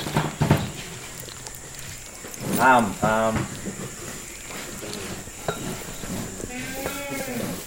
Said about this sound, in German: Tam ist der Name des Tieres, das hier schnauft. Tam ist ein Nashornmännchen.